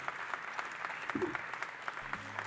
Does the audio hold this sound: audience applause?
yes